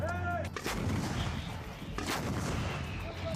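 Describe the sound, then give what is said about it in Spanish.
Heavy bombardment of the Gaza Strip by Israeli tanks: two sharp, booming explosions about a second and a half apart, each followed by a deep rumble, over a continuous low roar and faint whistling tones. “Israel mantiene apostados en la frontera a decenas de miles de soldados y tanques que han seguido bombardeando la franja.”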